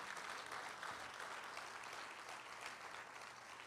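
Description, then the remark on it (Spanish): A large church audience applauds loudly and steadily, giving glory to God on its seventh anniversary, a dense wash of clapping with cheering mixed in, holding at full strength for a few seconds without pause. “Denle un gloria a Dios fuerte.”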